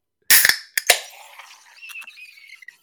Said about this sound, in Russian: Внутри банки, значит, нитрогенная бомба, которую сейчас банку я открою, она так вот запищит, сделает красивую пену